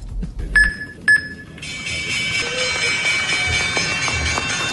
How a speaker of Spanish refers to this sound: Este es el sonido de la campana que oprimió el presidente Iván Duque y los presidentes de la Bolsa de Valores de Colombia y del Banco de Desarrollo. Conmemoraron la primera emisión de bonos naranja en el mercado mundial.